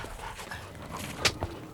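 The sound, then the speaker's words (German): A dog lets out a short, sharp bark followed by a softer huff, with faint breathy panting underneath; fairly quiet overall and no one speaks. “Braver Hund.”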